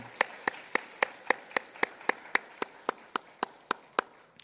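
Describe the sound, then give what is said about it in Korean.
A church audience claps together in a steady, even rhythm to bless a member who is getting married this Saturday, about sixteen sharp claps at a brisk pace, moderately loud with no talking. “우리 축복하는 박수를 한번 쳐주면 좋을 것 같습니다.”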